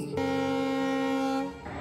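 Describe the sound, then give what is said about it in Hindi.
A single long horn blast at Lucknow railway station, loud and steady in pitch with a rich, brassy tone, holding for over a second before cutting off into soft background noise. “लखनऊ के railway station पर चेहरे पर मुस्कान और आंखों में एक जुनून लेकर उतरी थी”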